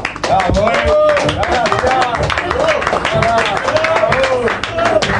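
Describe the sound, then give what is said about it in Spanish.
A crowd applauds the staff of Radio Atómica, dense rapid clapping at an even loud level for several seconds, with voices shouting and cheering over it. “Muchas gracias, un aplauso para los pibes de la radio.”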